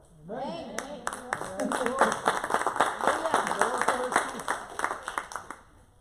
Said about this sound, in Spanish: ¿Cuántos dan palmas?